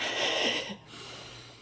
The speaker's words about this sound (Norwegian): Og så skal vi ta et veldig sånn godt innpust inn. Gjennom nesa? Ja. ja. Hvis ikke du er tett i nesa.